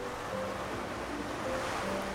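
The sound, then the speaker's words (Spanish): Steady, broad wash of ocean water lapping around a boat in the middle of the ocean on a sunny day, with a faint low hum and breezy hiss, moderately quiet and continuous with no voices. “ya se encontraban en un bote en medio del océano.”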